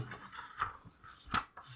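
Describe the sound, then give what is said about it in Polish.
Quiet rustling of notebook pages being flipped, with a few sharper crinkly bursts among softer shuffling over a couple of seconds, no voices. “Sorry za szereg z kartkami coś tu mam.”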